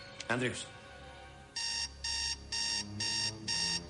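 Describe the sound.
An alarm clock rings in repeated electronic bursts, five steady pulses with short gaps, loud and close, after a brief rustle at the start; faint voices sit underneath.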